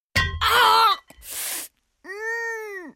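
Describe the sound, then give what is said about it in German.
A pained groan from someone whose foot has accidentally had a gold bar fall on it: a strained, loud cry, then a ragged breathy gasp, followed by a longer wavering moan that rises and falls. No words are spoken. “So klingt es, wenn Ihnen aus Versehen ein Goldbarren auf den Fuß fällt.”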